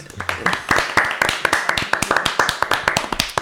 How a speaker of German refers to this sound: noch mal einen extra Applaus.